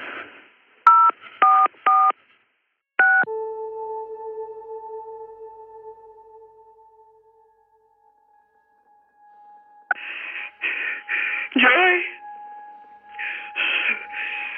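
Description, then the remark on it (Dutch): A few quick phone keypad tones beep in a short burst as someone dials the emergency number 112, followed by a long steady dial tone that fades, then another run of rapid dialing beeps near the end. “Oh, ik heb 112 gebeld.”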